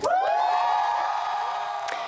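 Britney Spears fans outside the courthouse cheer and whoop loudly and continuously in joy after the ruling that Jamie Spears is no longer her conservator, high excited voices overlapping in a sustained roar of celebration, with a sharp shriek rising near the end.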